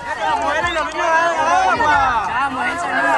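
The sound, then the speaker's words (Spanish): A dense crowd of many migrants talking and calling out at once, loud, with overlapping shouts and a steady hubbub throughout, as they stand in a line asking for water along the roads. “Lo que escuchan es parte del drama de los migrantes, haciendo una fila pidiendo agua en su andar por las carreteras viven sometidos a extremas temperaturas del clima.”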